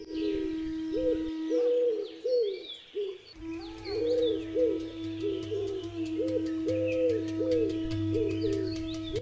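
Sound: dove cooing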